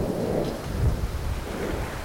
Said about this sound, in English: Through the booming thunder came the crashing sound of branches breaking and falling.